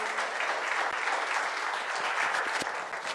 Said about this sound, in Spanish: Y con un aplauso toma su lugar.